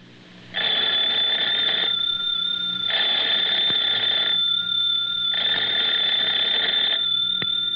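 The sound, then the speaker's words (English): A telephone bell rings in three long, loud bursts separated by brief pauses, with no one speaking, on the Lum and Abner radio show. “I believe that's our ring.”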